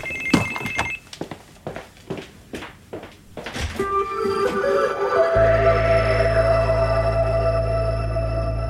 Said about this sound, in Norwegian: Jeg ringer på en regissør. Skal vi prøve å se hvem det er? Ja.